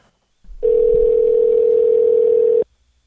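A single steady telephone ringing tone, as a phone call to a volunteer is being connected, sounds for about two seconds, loud and clear over a faint low rumble, then cuts off abruptly.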